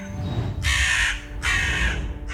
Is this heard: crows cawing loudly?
yes